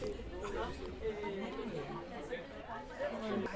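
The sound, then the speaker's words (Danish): Steady indoor crowd chatter from an audience in a bookshop café on Fiolstræde in central Copenhagen, Denmark, at an event hosted by the Danish Authors' Society, many overlapping voices murmuring at a moderate level with no single speaker standing out. “så stiller vi om til Paludans bogcafé i Fiolstræde i det indre København, hvor Dansk Forfatterforening har inviteret til Rød Sofa”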